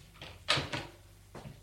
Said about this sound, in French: Elle ouvre la porte.